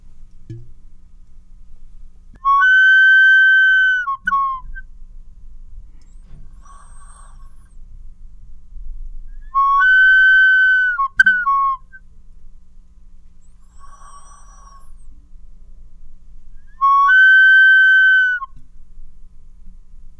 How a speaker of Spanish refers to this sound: Y bueno, esta otra también es una vasija silbadora, esta solo tiene dos cuencos, pero tiene una cabeza resonante. Y esta cabeza resonante hace que se produzca un armónico y un glisando.